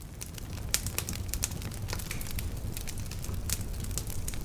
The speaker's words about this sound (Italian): Il fuoco illumina la serata e vi distribuite tutti intorno.